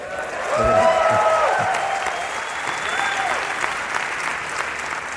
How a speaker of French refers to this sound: Et tout le monde applaudit, bien sûr